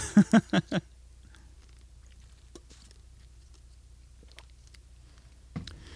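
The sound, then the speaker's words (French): Someone takes another small sip of water: a quick series of four gulping swallows, then near silence with faint mouth clicks and a soft rustle near the end. “je vais me prendre une autre petite gorgée d'eau.”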